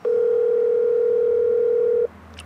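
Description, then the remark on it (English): A telephone dial tone during an outgoing call in Selma, Alabama, hums steadily for about two seconds, a single loud, unbroken pitch that cuts off abruptly, leaving faint line hiss and a small click. “We're calling George Needham.”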